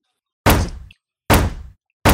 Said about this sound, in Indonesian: Aku sendiri yang dobrak pintu inilah. Kalian kiranya badan gue udah kayak bulldozer.